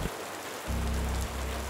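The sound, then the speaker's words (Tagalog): Steady rain pours down in a continuous, even hiss, with a deeper low rumble joining partway through. No voices are heard. “Akala ko ay nakayuko lang siya dahil nababasa na siya ng ulan.”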